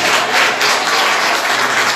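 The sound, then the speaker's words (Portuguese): A church audience applauds the Lord, many hands clapping together in a dense, steady wash of sound that stays loud and even throughout, with no voices standing out. “Quem crê nisso, aplaude o Senhor, glorifica o Senhor em nome de Jesus.”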